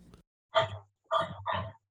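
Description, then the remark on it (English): A dog from China barks three times in quick succession, short sharp yaps, with a brief pause after the first and no talking around them. “what language is your dog speaking right now”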